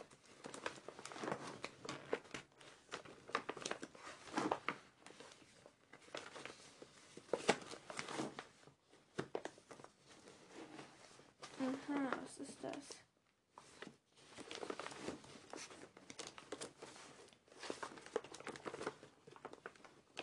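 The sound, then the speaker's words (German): Paper, a note sticking out from the bottom of a compartment, is pulled out and rustled in a steady run of crinkling and shuffling that lasts through the whole stretch with a few brief pauses. A voice murmurs faintly underneath. “Was ist das für ein Papier, das da unten raussteht?”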